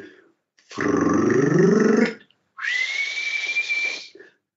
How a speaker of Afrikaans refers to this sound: dan vir my van die mooiste, van die mees hartroerende roepe in Afrika is die dagbrekertjie, um die Engelse klapperlark. As jy lê in jou kooi op 'n karoo, 'n eh, plaas en net voor dagbreek hoor jy